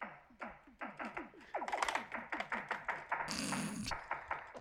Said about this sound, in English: Here's what the drums sound like.